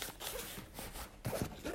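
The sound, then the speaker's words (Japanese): The zipper of the large main compartment of a bag used for home visits, holding a blood pressure monitor and stethoscope, is pulled open in a few quick, raspy strokes, fairly loud, with a brief handling rustle and no voices. “今度最後大きなメインの引き出しを開けるんですが、えー、そこには、えーと、必須の血圧計聴診器”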